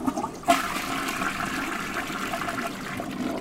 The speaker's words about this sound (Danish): vi har nogle andre pumper, som gør, at vi kan trække ud på toilettet.